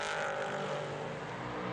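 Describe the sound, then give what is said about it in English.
A race car engine roars loudly and steadily, a dense, buzzing drone that holds for a couple of seconds as the number two Nielsen car, driven by Tony Wells, powers out of turn five, with no voices. “So powering his way out of turn five.”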